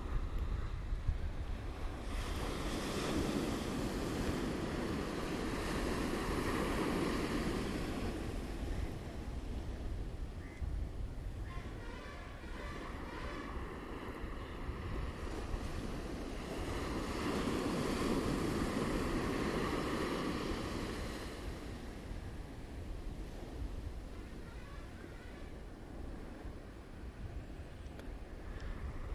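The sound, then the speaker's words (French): Water waves roll in and wash out in slow, steady surges, swelling loudly about every fifteen seconds with a soft hiss of surf and wind between, and no voices. “Maintenant que ta respiration est plus lente, plus douce, le corps complètement relâché et détendu, tu vas pouvoir te connecter à l'eau que tu entends depuis tout à l'heure avec moi en fond.”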